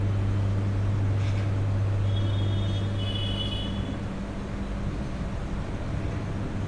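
A steady mechanical hum from a fan and air conditioner runs without pause, with a deep low drone and a soft airy whoosh, fairly loud, and no voices.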